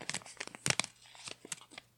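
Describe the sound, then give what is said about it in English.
Paper being crinkled close to the microphone, a quick series of crisp, irregular crackles and rustles with a few sharper bursts, no talking over it. “Like me crinkling paper.”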